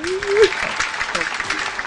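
A short burst of applause, many hands clapping in a dense, crackling patter that stays steady for about two seconds, with a brief rising vocal cheer at the start.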